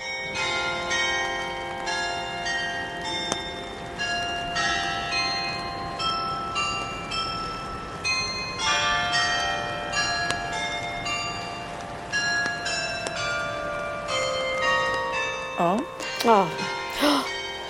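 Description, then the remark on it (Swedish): The town hall carillon bells in Norrköping, Sweden, ring out a melody, with many overlapping tuned strikes ringing and sustaining over steady background noise, heard outdoors. Near the end, a few sweeping tones rise and fall. “så här lät det i Rådhuset i Norrköping när de spelade Sparvöga”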